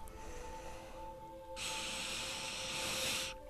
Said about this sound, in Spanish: Inhala y siente cómo el aire te llena y exhala y siente cómo los problemas se van.